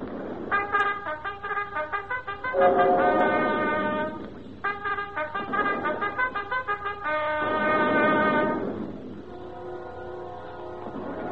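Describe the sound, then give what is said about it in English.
A mail call signal is sounded by a corporal on a brassy horn: a string of clear, rhythmic note phrases with short pauses between them, loud, with no talking over it. “Sound mail call.”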